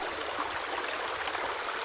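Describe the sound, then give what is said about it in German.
A steady roar of rushing water pours continuously like a waterfall, a dense hiss with no pauses, moderately loud, with no voices. “Einer, ein Wasserfall.”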